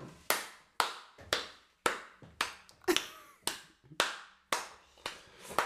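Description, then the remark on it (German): A steady run of about eleven sharp hand strikes on a surface, evenly spaced roughly twice a second, each one crisp with a short ringing decay, and no voices. “weil du gerade schon äh, zum nächsten Thema trommeln wolltest.”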